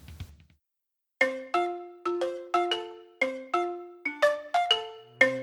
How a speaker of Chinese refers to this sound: 只要听到的翻页声时，就表示要翻页喽。